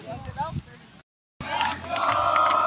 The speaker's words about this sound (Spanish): Y ahí están los campeones celebrando, ojo. Escucha, póngale el oído. Esto es histórico.